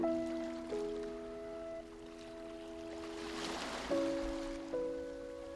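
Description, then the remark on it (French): Gentle ocean surf washes softly onto a beach in the background, swelling once near the middle, beneath sustained, calm musical tones that shift pitch a few times. “Puis laissez les vagues emmener doucement au large ces pensées dont vous voulez vous détacher.”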